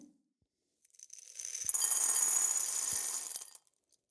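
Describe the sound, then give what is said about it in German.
Dried chickpeas poured from a jar into a bowl: a dense, rattling cascade of small hard pellets, building over a couple of seconds, holding steady, then tapering off with a few last clicks. Fairly loud, no voices. “Ja, manche Sachen haben sich geweigert, ähm, aus dem Glas in die Schüssel zu fallen.”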